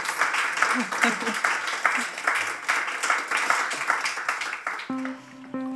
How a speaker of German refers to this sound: herzlich Applaus für die beiden tollen Frauen.